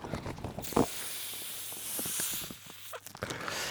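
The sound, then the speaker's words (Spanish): Helium hisses from a company's helium tank, used to fill balloons for an event, as the last of the helium is used up, in a steady, airy rush lasting about two seconds, framed by clicks and handling noises before and after. “tenemos un, un, un una depósito de estos de helio en la empresa porque hicimos una, especie de, evento y había globos de esos que, se llenan de helio.”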